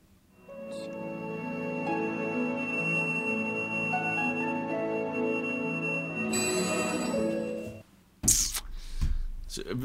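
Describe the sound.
Sustained orchestral film-score music plays for about seven seconds, full and steady with a brighter swell near the end, then stops abruptly as a person starts talking.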